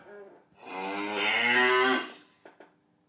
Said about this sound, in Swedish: Så kommer det en ljudeffekt med en ko där.